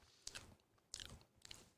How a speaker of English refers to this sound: Um, they taste good, by the way. Sorry, I'm chewing on one right now.